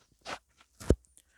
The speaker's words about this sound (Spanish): Y a ver, vamos a quitarle la espumita a mi micrófono. A ver.